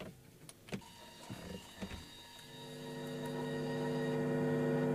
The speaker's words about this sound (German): Ja, jetzt haben wir gerade Kalibrierung gehört.